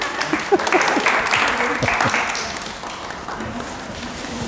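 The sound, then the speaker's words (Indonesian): A crowd applauds steadily for several seconds, a dense wash of many hands clapping, with scattered voices and chatter mixed in underneath. “tepuk tangan lagi dong”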